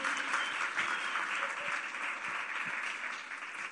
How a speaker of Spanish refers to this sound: Y así yo quiero darme un fuerte aplauso para recibir a Rebeca Escuopo aquí con nosotros.